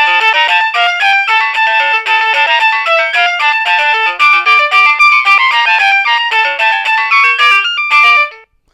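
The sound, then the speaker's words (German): An electronic doorbell being tried out plays one of its ringtones, a bright, fast melody of bleepy tones stepping up and down in pitch, loud and continuous for about eight seconds before stopping, with no voices. “Dass die Töne natürlich ein bisschen aufdringlich sind, muss ja so sein. Ich will ja auch mitbekommen, wenn einer klingelt.”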